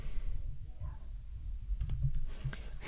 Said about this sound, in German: Der Hund kratzt an der Tür, weil er mich hier die ganze Zeit reden hört und denkt, ja, das muss doch mir gelten.